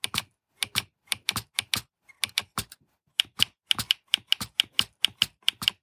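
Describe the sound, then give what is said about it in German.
Rapid, sharp mechanical clicks from a braille display's modules popping up as new text appears while navigating with its navigation bar, arriving in quick irregular bursts with brief pauses, loud and crisp with no talking. “Also auch die klopft ziemlich die Module raus und jetzt gehe ich auch mal mit der Navigationsleiste.”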